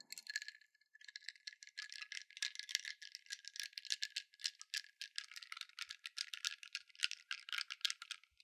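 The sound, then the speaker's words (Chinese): A spoon stirs coffee in a cup, a continuous, fast, bright clinking and rattling against the sides that goes on steadily for several seconds, with no talking. “然后我咖啡弄回来之后呢，我就一直没有搅拌，因为我要给你看它的样子，以及要给你听到我搅拌的声音。”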